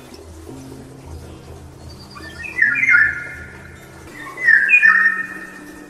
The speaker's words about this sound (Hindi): बाहर उड़ती चिड़िया को देखती हुई इस भद्दे शोर शराबे में भी उसे चिड़ियों की चहचहाहट सुनाई दे रही थी